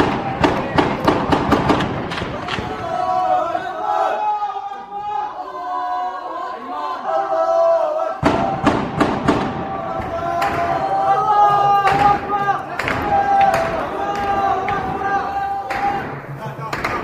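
Rapid bursts of automatic gunfire crack out in loud clusters, pausing and then resuming, over the noise of a shouting, agitated crowd at a Friday protest against Bashar al-Assad's regime, with families and children present; the gunfire disperses the crowd.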